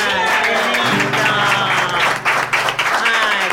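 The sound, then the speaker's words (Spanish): A crowd breaks into loud, sustained applause, dense clapping for several seconds, with a faint tonal hum of voices or music running underneath. “Bueno, muchas gracias por el silencio, los aplausos”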